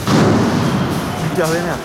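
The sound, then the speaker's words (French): A loud, booming blast from a Greek homemade firecracker built from a camping gas canister, which also throws out a huge flame, followed by a sustained rumble, with a noisy crowd and a raised voice shouting in the background at burning barricades. “Voilà, ça c'est le son des pétards artisanaux grecs qui sont en fait des camping-gaz et qui en plus de faire beaucoup de bruit font une flamme énorme.”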